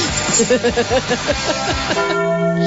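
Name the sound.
church bell ringing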